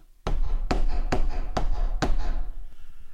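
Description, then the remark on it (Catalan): Five firm knocks on a palace door, evenly spaced, with a low rumble of background noise continuing underneath and no voices. “En arribar, va trucar a la porta.”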